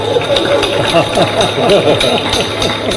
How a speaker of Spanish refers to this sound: escucha escucha la algarabía de, la gente cuando él, cuando él